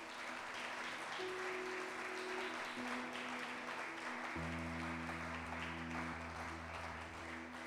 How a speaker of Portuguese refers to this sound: Dá uma salva de palmas a ele.